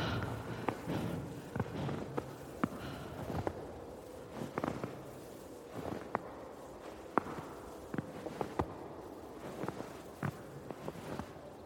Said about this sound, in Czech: Sníh pod nohama křupe. Je ticho, bílo a začíná se smrákat.